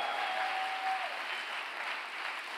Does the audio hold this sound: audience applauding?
yes